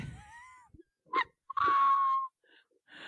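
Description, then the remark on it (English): A person yawns: a drawn-out, breathy yawn with a voiced, slightly falling whine, preceded by a few short breaths and soft vocal noises, with no talking. “I just yawned”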